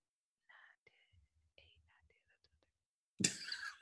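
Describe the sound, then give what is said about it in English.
Soft, breathy whispered counting of years under the breath, up to thirteen, a string of short murmured bursts, followed by a sudden louder burst of voice or laughter at the end. “You hear me over here counting?”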